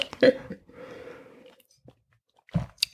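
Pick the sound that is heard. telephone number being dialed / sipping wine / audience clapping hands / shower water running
sipping wine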